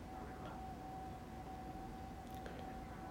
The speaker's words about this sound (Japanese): J アラートの訓練ですかねなんかサイレンがうん、やっぱり J アラートテストですね11時ねいつもなんかたまになりますよね、うん、僕の家は J アラートがえー、窓は全部閉め切ってますが聞こえるような場所にいますはい